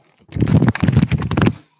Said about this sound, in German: war das denn jetzt? das war ein Buch. Ein sehr gelbes Buch. Also außen sehr gelb.